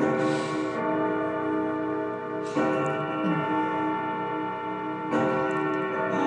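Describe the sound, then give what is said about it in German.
A clock's gong strikes ten o'clock slowly and evenly, with resonant chimes about two and a half seconds apart, each ringing out with rich, sustained overtones that hum between strokes. No one speaks. “Das ist die Uhr hier, die. Sorry. Alles gut. Dann lassen es einfach. und genieße geschwind diese, diese Gongschläge.”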